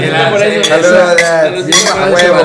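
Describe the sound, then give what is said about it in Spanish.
Glasses clink together several times in a toast, bright ringing taps that overlap and linger, with a few faint voices murmuring underneath. “Salud. Salud.”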